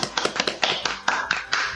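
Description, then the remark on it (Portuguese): A short burst of applause after mathematics wins a vote: roughly ten sharp, bright hand claps at a brisk, slightly uneven pace, with no voices over them. “Aplausos.”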